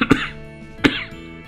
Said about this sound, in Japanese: 咳がやや出ますね。